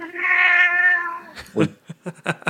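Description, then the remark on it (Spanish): A cat lets out one loud, drawn-out meow directly into a microphone, followed by a few short, scattered noisy bursts. “Eh, eh, Quiere subirse encima de mí y entonces me he apartado y, y ha maullado directamente en el micrófono.”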